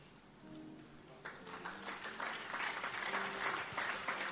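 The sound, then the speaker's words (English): An audience claps steadily, starting thinly and swelling into a dense, continuous wash of applause that stays loud to the end, with a few faint voices beneath it early on. “Oh, are you clapping or you are doing something like clapping?”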